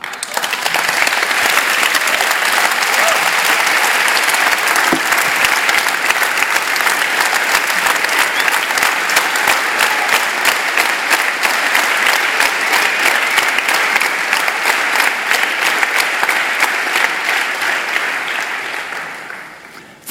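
An audience claps steadily for about twenty seconds, a dense, even patter of many hands that holds loud throughout before tapering off at the very end.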